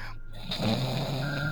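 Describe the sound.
A person imitates a snore with one drawn-out, rasping throat rattle lasting about a second. It is fairly loud, with no other talking.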